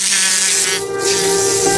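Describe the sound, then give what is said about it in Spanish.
A fly buzzes loud with a steady, droning hum that barely lets up, briefly dipping in tone midway before continuing, as it feeds on the tears and mucus of a starving child. No one speaks. “Pero, observa detenidamente cómo este niño ofrece sus lágrimas y sus mocos para que la pobre mosca pueda alimentarse, aunque él no tenga ni en qué caerse muerto.”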